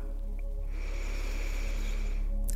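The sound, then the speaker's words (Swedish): A slow, deep breath drawn in through the nose during a guided breathing exercise, soft, lasting about two seconds over a faint steady background hum, with no talking. “Andas in.”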